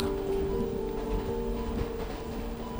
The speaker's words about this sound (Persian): سکوت صدای بارون رو شکست